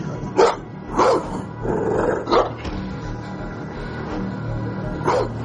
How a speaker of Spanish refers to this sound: Un gran perro se acerca a ella mostrando los dientes.